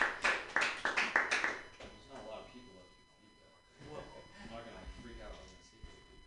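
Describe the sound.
A short burst of audience applause, loud and rhythmic claps for under two seconds, fading out as people begin talking.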